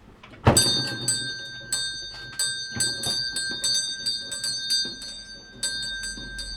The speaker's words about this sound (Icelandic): En við skulum ringja bjöllunni sem er jafn sérstokk og allt í þessu húsi.